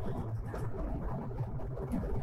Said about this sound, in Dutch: ik zit op het moment dus in de auto onderweg naar Frankrijk. En ehm, nou, ik heb net even het geluid getest en volgens mij is het hartstikke goed hoorbaar. Waarschijnlijk een klein beetje achtergrondgeluid van de auto